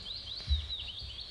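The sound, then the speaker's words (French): Birds chirp continuously in a high, warbling chorus in Greece at 9 p.m., several overlapping calls, with a low rumble of background noise underneath and no one talking. “À 21h, on part se coucher et on entend les oiseaux.”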